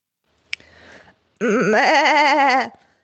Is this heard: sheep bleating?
yes